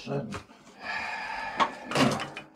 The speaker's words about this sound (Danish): Luk døren for